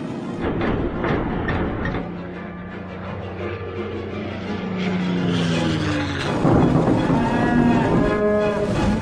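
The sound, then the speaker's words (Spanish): Several cows falling from a cargo plane moo over one another in long, low, droning calls with wavering pitch, growing louder and more overlapped toward the end, with no talking. “Las vacas caen.”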